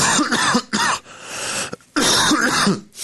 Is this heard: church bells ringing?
no